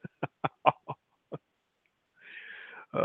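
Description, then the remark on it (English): A person imitates a pig: a quick run of six short, throaty grunts, a brief pause, then a longer raspy, wheezing snort, followed by one more grunt. “give me the, the, the official pig”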